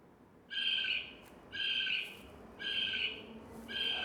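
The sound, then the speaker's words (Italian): A raccoon calls four times in a steady rhythm, each cry a short, bright, slightly shrill burst of about half a second, clear with no voices around it. “Com'è che ha fatto il procione Leonardo? Me lo fai sentire?”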